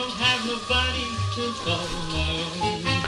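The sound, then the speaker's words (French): Old lo-fi music recording from the 1950s or 1960s playing back from a cartridge player, a tonal melody and bass notes under a steady crackly hiss, continuous, with no talking. “Tout ce que tu entends là, c'est des enregistrements pour fifone datant des années 50 ou 60, parce que l'engin a été tué par le succès du micro-sillon et il est tombé dans l'oubli.”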